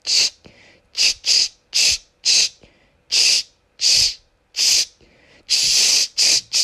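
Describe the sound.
A voice imitates a spray bottle spraying a laptop screen, with about ten short, sharp hissing bursts in an uneven rhythm, some doubled quickly and one longer spray, bright and fairly loud with brief pauses between.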